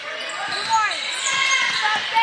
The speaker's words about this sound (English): Back to Bell. One dribble to his right, making the pass to Carroll.